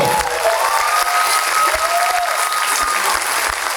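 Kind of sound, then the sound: crowd, audience applause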